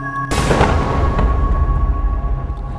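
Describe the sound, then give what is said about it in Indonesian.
Around one o'clock at night, a sudden loud explosion from the top of a mountain bursts in after a short quiet moment, followed by a deep rumbling tail that slowly fades, with a faint steady tone humming underneath. “Sekitar jam satu malam, terdengar suara ledakan yang berasal dari atas gunung”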